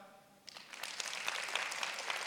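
The first four rows of an audience break into applause when asked to clap, many hands clapping in a dense, rapid patter that swells quickly and holds steady at a moderate level with no talking over it.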